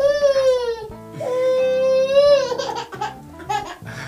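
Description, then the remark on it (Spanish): The youngest little girl cries in loud, high-pitched wails, two long sustained cries followed by shorter broken sobs and whimpers, with no other voices. “eh, que empezó, ahí la sentimos a la más pequeña”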